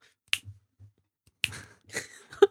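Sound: finger snapping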